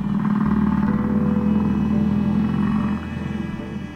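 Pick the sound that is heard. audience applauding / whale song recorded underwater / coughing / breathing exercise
whale song recorded underwater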